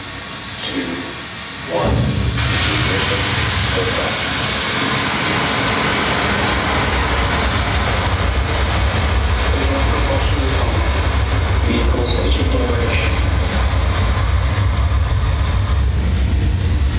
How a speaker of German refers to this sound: Und jetzt genießen wir mal diesen Moment. 15 Sekunden, wie die Falcon 9 abhebt.